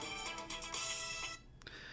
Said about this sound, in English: is calling me on my cell phone.